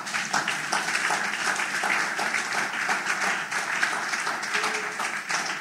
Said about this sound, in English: Oh, I thought you would have clapped for me for this one.